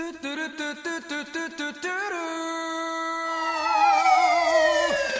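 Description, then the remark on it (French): A police car siren, tied to Alerte Cobra, wails alone, first in quick repeated yelping pulses, then settling into a steady, loud high tone that slowly slides downward in pitch. “Alerte Cobra Alerte Cobra, mais la sirène”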